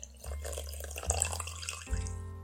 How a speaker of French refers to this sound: la dernière goutte de magie s'échappe de notre théière enchantée.